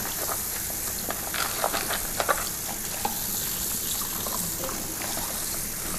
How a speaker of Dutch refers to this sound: Ik ga even eh, de groenten wassen. Een beetje spoelen.